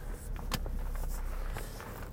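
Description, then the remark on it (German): A car's steady low engine rumble fills the background, with a few sharp clicks and knocks over it, heard from inside the car as it is driven to work on a Monday morning in October; no one speaks. “Ich fahre heute halt, äh, mit dem Auto an die Arbeit.”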